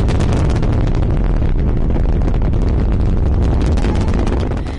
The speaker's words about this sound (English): So this very low rumble starts coming across the water at you, and it just it gets louder and louder, and it's like thousands of fireworks going off at once. It's like the sound is ripping through the air.